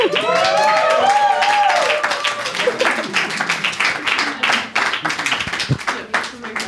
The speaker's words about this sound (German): Einen großen Applaus für unsere Kandidaten und Kandidatinnen.